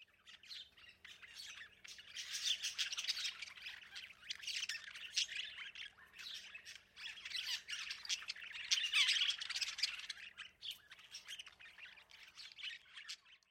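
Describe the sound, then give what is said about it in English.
A budgerigar chirps and squawks continuously, a busy, scratchy chatter of rapid high-pitched calls with louder bursts, with no talking over it. “you look at one of the darlings of our Australian bird life, arguably I think the most fantastic Australian bird, the budgerigar, the budgie, they are able to pick up all sorts of variations in sound and it makes them therefore really good talkers.”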